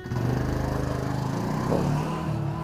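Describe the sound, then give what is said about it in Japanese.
A small postal delivery motorbike engine putters steadily at idle on the morning of January 1, delivering New Year's cards house to house; a low, pulsing mechanical drone with a slight rise in revs partway through, running alone without any talking. “一軒一軒のお家に、年賀状とかに1月1日配るものをこう、ーでまとまってるものをこう渡されていく。”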